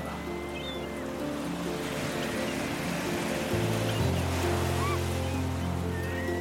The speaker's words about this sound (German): Ich rieche die salzige Meeresluft, habe den Geschmack von Meeresfrüchten in meinem Mund, spüre den seichten Wind auf meiner Haut, den nassen Sand unter meinen Füßen und sehe die schäumende Brandung vor meinem inneren Auge.